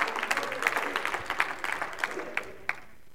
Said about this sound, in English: Oh, somebody clap those hands and shout, Hallelujah. Hallelujah.